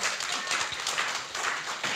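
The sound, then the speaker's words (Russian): Dense, continuous applause from an audience at an anniversary concert after a song performance, a steady wash of many hands clapping at once with scattered sharper claps, sustained at an even, fairly loud level throughout. “Ваши аплодисменты, дорогие друзья.”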